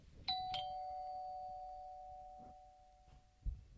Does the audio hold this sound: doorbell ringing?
yes